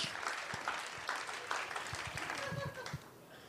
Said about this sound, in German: Hört auf da zu klatschen. Der fühlt sich Nein, bestätigt. Klatsch. Klatsch. Der findet das dann witzig.